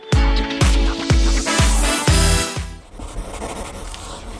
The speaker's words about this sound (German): Wir befinden uns gerade vor einem aktiven Igel. Die meisten hier schlafen noch. Und der macht ganz spannende Geräusche.